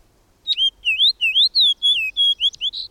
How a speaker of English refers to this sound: A loud, spirited song of whistled notes tells us the fox sparrow is at hand.